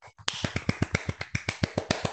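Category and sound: crowd, applause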